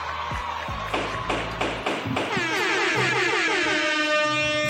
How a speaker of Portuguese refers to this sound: Gente, trouxeram vuvuzela, gente, aqui é um tribunal.